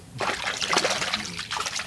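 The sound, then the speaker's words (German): Water churning in a swimming pool with a counter-current swimming system, a steady rushing and trickling with small splashy surges throughout, fairly loud and with no voices. “der Pool hier. Ist Pool mit einer Gegenschwimmanlage.”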